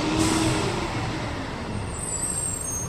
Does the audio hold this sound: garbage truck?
yes